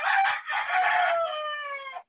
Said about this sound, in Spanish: Los gallos dándolo todo, no importa